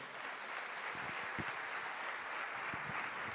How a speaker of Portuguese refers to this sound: Você pode aplaudir a Jesus por isso?